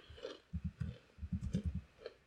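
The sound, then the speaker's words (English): Quiet crunching of chips being chewed, in several uneven bursts with brief pauses between bites and no talking. “While we're doing that, I'm gonna eat my chips.”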